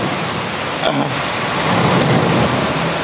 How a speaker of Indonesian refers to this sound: truk mulu lewat nih